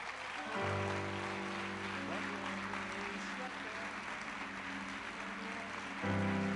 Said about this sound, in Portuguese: Você pode colocar de pé um minutinho e aplaudir o Senhor por alguns segundos.